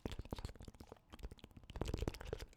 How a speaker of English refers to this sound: We hear the sound of running water, you know, you know that the sound of it hitting tile